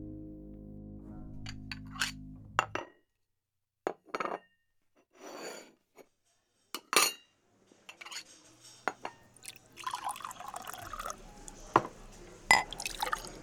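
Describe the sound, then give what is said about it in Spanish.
Ambience of the Platerías café, with clinking cutlery and dishes, sharp scattered metallic taps over a low room hum, and liquid being poured in short bursts, with a faint background murmur of voices. “Al día siguiente me acerqué al café Platerías a ver qué se decía de ella en las tertulias.”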